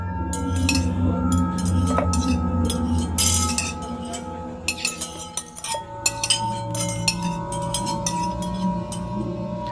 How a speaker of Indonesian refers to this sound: Disusul suara tudung saji di meja makan digeser dan setelah itu terdengar suara sendok dan piring seperti sedang ada orang yang makan.